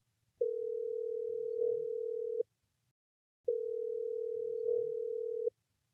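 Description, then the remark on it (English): Two long, steady ringback tones from an outgoing phone call, each lasting about two seconds with a short pause between, clear and fairly loud with no voices. “I'm going to give a guy a call”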